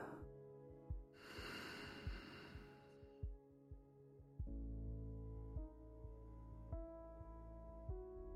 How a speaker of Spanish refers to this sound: Exhala y nota cómo se contrae. Inhala. Exhala.